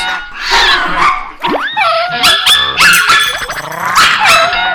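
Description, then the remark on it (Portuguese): Loud dog barking, growing louder and louder, in rapid, overlapping bursts with yips and growls mixed in, keeping up a frantic, agitated intensity throughout. “Uma correria desenfreada pela sala, miados nervosos, roncos, uivos, latas caindo, louça quebrando, latidos cada vez mais fortes, barulho de luta, miados desesperados, grunhidos e gemidos.”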